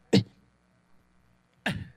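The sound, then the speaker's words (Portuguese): Two short, sharp, shortened coughs about a second and a half apart, used by a voice as a beatbox snare, clipped and punchy, fairly loud with silence between. “A caixa é uma tosse, que realmente é uma tosse.”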